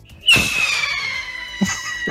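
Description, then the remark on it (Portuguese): A voice imitates a helicopter with a fairly loud, sustained whistling-hiss tone that glides slowly downward, starting with an abrupt burst and catching with a second short burst near the end, the ending mimicking the helicopter running out of fuel and falling. “no som, o som do, do, dos helicópteros é assim, ó.”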